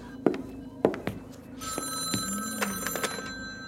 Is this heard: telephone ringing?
yes